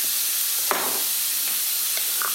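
Steady, crackling sizzle of bacon and about three slices of jarred jalapeno frying together in a hot pan, the bacon turned yellow with turmeric, continuous, with a brief clatter or stir partway through and no talking.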